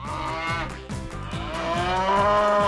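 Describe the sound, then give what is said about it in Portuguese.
A cow moos loudly, one long drawn-out low bellow that rises and holds for a few seconds with no one talking. “Depois, põe o filtro Vaca Latte ou Chocolate na tua vaquinha.”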